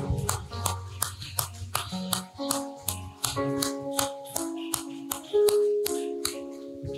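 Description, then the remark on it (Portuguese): An audience at a worship service claps in a steady rhythm, applauding Jesus in praise, sharp hand claps landing about twice a second over sustained keyboard music with held chords. No one speaks. “Vamos aplaudir bem forte Jesus.”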